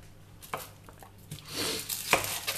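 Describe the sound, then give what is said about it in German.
A knife chops food on a cutting board in a few sharp, irregular thuds, with soft scraping and rustling in between. No one speaks. “Also mich verstand, beim Schneiden am besten immer einen Schluck Wasser im Mund behalten.”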